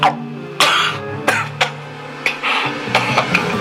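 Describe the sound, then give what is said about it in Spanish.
A sudden coughing fit: several harsh, explosive coughs in quick irregular bursts, loud, with strained breathy gasps between them as if someone is choking. “Ay, pues no escuchas que se está muriendo. Ay, por Dios, denle agua.”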